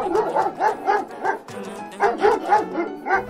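A dog barks in quick, yappy bursts, about six barks, a short pause, then five more, loud with no talk over it.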